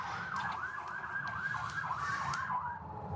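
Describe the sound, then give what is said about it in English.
An emergency vehicle siren wails outside in a neighborhood in Washington, in a rapid rising-and-falling pattern, steady and moderately loud over a low rumble of traffic, with no one talking. “Maybe let's wait till the siren is.”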